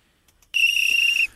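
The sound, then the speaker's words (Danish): A single long, shrill blast of a referee's whistle starts abruptly and holds steady for under a second before cutting off. It's loud, with no talking. “Og dermed, der fløjter vi lige for AB-snakken i den her omgang”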